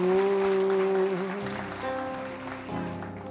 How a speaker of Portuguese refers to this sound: Palmas para vocês, palmas para Jesus.